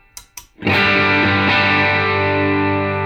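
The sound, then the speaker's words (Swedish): Two quick muted scratches on electric guitar, then a single strummed chord rings out loud and sustained through an overdrive pedal set fairly transparent (volume full up, gain at 10-11 o'clock, tone at five past), its gritty, harmonic-rich tone slowly fading over a few seconds. “Eh, nu har vi ställt in pedalen eh, hyfsat transparent.”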